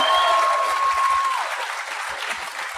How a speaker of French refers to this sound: J'aimerais ça qu'on leur donne bonne main d'applaudissement à Comédia.